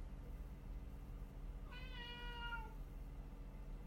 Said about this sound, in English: i hear the kitty i hear kitty Pepper has something to say about this too.